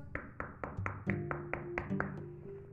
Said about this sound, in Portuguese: O lobo bateu na porta